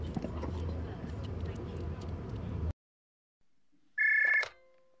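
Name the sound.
telephone ringing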